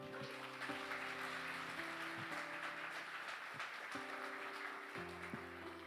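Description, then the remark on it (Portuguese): An audience at a church service applauds the Lord steadily for several seconds after a prayer, a dense, even patter of many hands clapping over sustained keyboard chords that shift every second or so. No one speaks. “Aplauda ao Senhor.”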